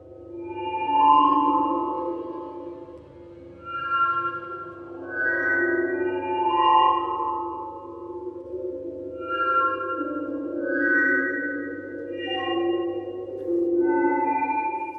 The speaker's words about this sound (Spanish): Escuchamos Fairyland, El País de las Hadas, tercera de las cuatro ilustraciones de 1995 para sonidos electroacústicos de Els Marie P.